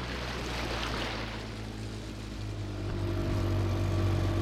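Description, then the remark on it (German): A laboratory boat of the Wasserwirtschaftsamt Kempten (water management office) heads out onto the Allersee, its motor droning steadily over a continuous rush of water and wind, building slightly louder toward the end, with no voices. “Mit der Kloß und Olaf König vom Wasserwirtschaftsamt Kempten geht es auf dem Laborboot auf den Allersee hinaus.”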